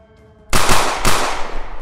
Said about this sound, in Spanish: Disparas, se empieza a hacer el ruido, todo el eco, las balas que van y vienen.